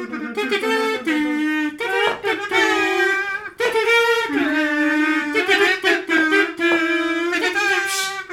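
A tin kazoo plays a buzzy, nasal melody up close, sliding between sustained notes in short phrases with brief breaths between them, loud and alone throughout.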